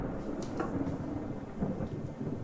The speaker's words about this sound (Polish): Mimowolnie odwracacie się i widzicie, jak podnosi rękę, a ona otulona jest czymś, co wygląda jak wyładowanie, jakby w ręce trzymał dynamo, a sam miał rękę opatuloną czymś metalowym i wysyła błyskawicę w waszą stronę.